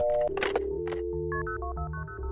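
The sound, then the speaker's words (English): Quick series of telephone keypad tones as phones are dialed, a string of short beeping button presses in an uneven rhythm, clear, with a low steady hum underneath and no talking. “So we grabbed our phones and got to work.”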